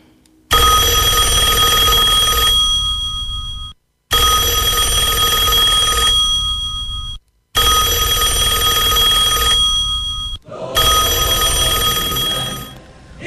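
An old telephone bell rings loudly in four long bursts as a call is placed, each lasting about three seconds with brief pauses between them, a harsh metallic jangle with no voices.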